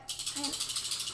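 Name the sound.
dog shaking itself off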